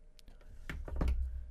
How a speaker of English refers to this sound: And I have a hard time typing and talking at the same time. right. Okay. Done typing.